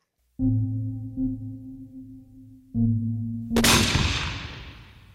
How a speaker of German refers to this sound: Ein Schuss. Nicht mehr war es am 19. November 1971 in Santa Ana in Kalifornien, woraus die Performance